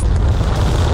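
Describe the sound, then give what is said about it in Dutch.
A loud, continuous liftoff roar of the Artemis 1 rocket, a dense rumbling wall of sound heaviest in the low end with crackling noise spread across the range, steady for the whole second with no voices. “En de Artemis 1-raket ging na uitstel en uitstel en nog een keer uitstel eindelijk de lucht”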